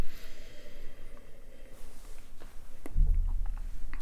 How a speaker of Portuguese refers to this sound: Esse é o som do meu nariz descomunal invadindo a taça. Vai tocar o vinho. Vai tocar o vinho.